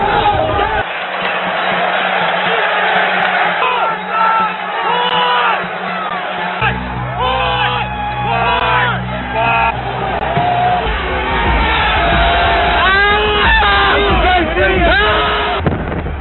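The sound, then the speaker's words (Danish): A large crowd of protesters storming the US Capitol on 6 January shouts and yells all at once as a police officer is crushed against a door by demonstrators, a dense, loud roar of overlapping voices with rising whoops and cries that continues without letup. “det sidste, vi ser her, eller kan øh, høre, høre lyden af, det er altså det berømte, berygtede billede, hvor vi ser en politimand sådan blive mast af demonstranter ind i, en, uh, ind i en dør.”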